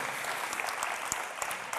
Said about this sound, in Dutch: Bedankt. dat we haar ongelooflijk applaus geven.